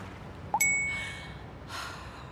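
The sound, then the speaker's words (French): A single bright phone notification chime, a reminder to take the train, rings out clearly as the phone is switched back on and fades slowly, followed a moment later by a soft breathy sigh against quiet background hiss. “Je rallume mon téléphone et j'ai bien reçu ma notification de rappel pour prendre le train.”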